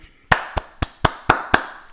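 crowd, hands clapping

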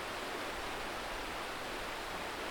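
nature, flowing river water

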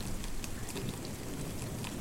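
nature, heavy rain falling

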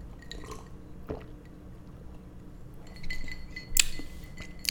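household object, ice clinking

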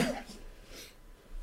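human body sound, sneeze

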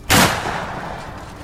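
sound effect, rifle shot

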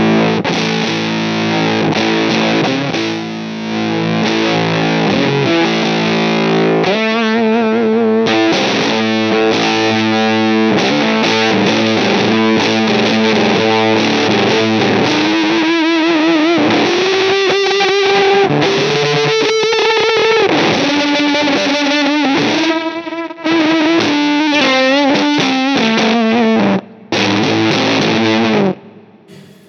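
sound effect, electric guitar through pedal

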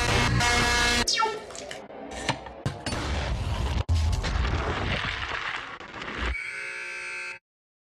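sound effect, gunfire

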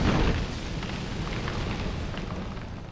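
sound effect, explosion

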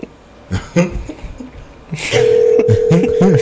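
signal or alarm, outgoing phone call ringing

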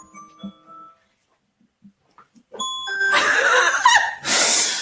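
signal or alarm, phone alarm ringing

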